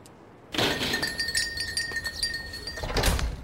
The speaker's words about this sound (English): Bell, bookstore. I'll have to remember that sound next time I'm practicing listening with